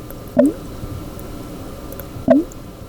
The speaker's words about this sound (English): And so it's a way that you can, you know, keep uh, your fermented beverage from getting contact with the air, which can prevent the fermentation from going bad. And the side benefit of an airlock is that it makes this cool blooping sound.